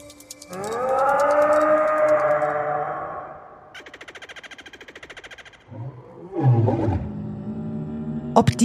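Huge dinosaur roars: a long, deep bellowing roar, then a harsh rattling growl and more snarling bursts, all loud with no talking.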